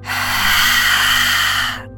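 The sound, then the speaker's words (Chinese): A single long, forceful lion's-breath exhalation pushed out through the mouth after the fifth deep inhalation of a breathing exercise, a loud breathy rush lasting nearly two seconds before trailing off, with no talking. “第五次深深的吸气，吐气时会像狮子一样，不断的展现出力量。”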